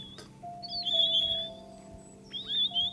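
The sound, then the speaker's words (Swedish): Two clear, whistled Siberian parakeet calls, each a short fluting phrase of rising and falling notes, over a steady low background hum, with a pause between them. “Det är ett läte som symboliserar de fria fåglarna. Tänk på det nästa gång du hör en sibirisk parakit.”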